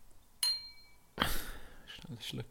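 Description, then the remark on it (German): A glass gives a single bright clink with a short ringing tone, then water is poured into it, a steady splashing rush that lasts a second or more. “Du kannst gleich weiter erzählen, ich kann mir kurz ein bisschen Wasser rauslassen.”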